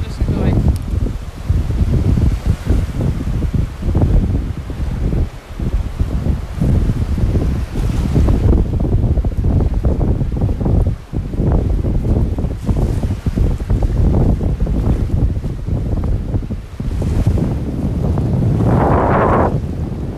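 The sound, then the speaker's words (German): Loud, steady ocean surf rushes and breaks while strong wind buffets the microphone with deep, rumbling gusts, continuing without pause and with no voices. “lassen euch jetzt noch mal ein paar, einmal kurz noch mal einfach nur am Meeresrauschen”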